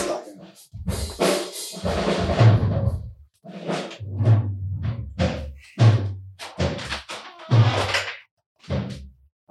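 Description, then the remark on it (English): A drum is struck again and again during a band's sound check in an uneven, testing rhythm: heavy thumps with deep low-end punch, some hits ringing out a little brighter. No one talks. “Hey, quit the fucking Put sound check.”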